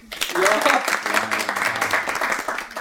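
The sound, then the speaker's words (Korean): Steady applause from a group, a dense wash of rapid claps running the full length, with voices cheering and exclaiming over it. “김태한님 일단 박수.”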